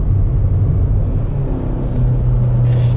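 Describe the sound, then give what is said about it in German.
The engine of a Suzuki S-Cross compact SUV with an automated manual gearbox drones steadily while accelerating, a deep continuous rumble whose pitch climbs slightly as it pulls harder. No voices are heard. “Also wenn man den Motor ein bisschen quält, dann kommt man auch auf Tempo.”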